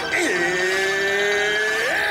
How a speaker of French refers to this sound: L'histoire le dit pas, mais ils ont pété le bouton du klaxon à Ball Arena, Colorado. Quelle victoire de l'Avalanche!